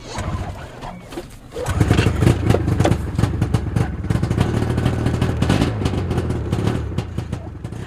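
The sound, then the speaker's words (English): A four-wheeler ATV pulling a trailer of empty water jugs to a central pump house runs steadily, a throaty mid-pitched drone with rattling clatter. A quieter stretch at the start gives way to a louder, sustained rumble as it drives on. “We gather empty water jugs, place them on a trailer, and head over on a four wheeler.”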